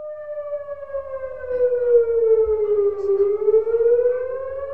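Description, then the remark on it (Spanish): A loud, steady alarm siren wails continuously, its tone dipping slightly then rising again, with a low rumble underneath and no voices. “Pero bueno, entonces ahora sí, hacemos sonar la alarma y entramos con spoilers.”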